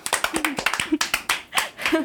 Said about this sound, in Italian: Applauso, applauso, applauso.